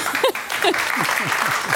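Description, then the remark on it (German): An audience claps steadily, a dense wash of many hands, with a few voices calling and murmuring through the applause, rewarding a guest's remark about politics. “Immerhin der belohnende Applaus für die Schmerzfreiheit.”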